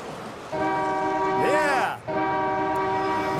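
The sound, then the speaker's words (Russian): A loud, sustained multi-tone car horn blares twice, the first blast running about 1.5 seconds with a warbling sweep in the middle, then a brief gap before a second long, steady blast. “Посигнальте и послушайте внимательно, кто еще сигналит.”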